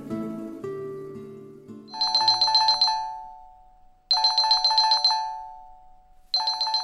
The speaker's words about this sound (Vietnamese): tiếng chuông điện thoại khiến Yong Sun giật mình